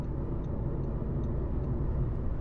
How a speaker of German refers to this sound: Äh, wir müssen kurz live zwischen rein, wir müssen ganz nach rechts, Frankfurter Kreuz. Ähm, ihr seht, wir sind live im Auto, wir sind gleich am Frankfurter Kreuz, so viel dazu.